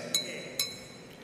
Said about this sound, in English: He took his spoon and he hit the, uh, the glass that is uh, like uh, it's crystal and it emits a sound. And when he hit that glass,